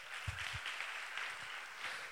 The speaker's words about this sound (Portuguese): Aplauda o Senhor por essa palavra.